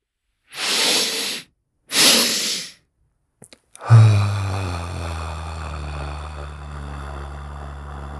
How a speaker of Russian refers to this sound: И всем вместе сейчас сделать такой двойной вдох последовательный носом и длинный-длинный со звуком, расслабленный выдох ртом, наблюдая ощущения в теле. Итак, носом.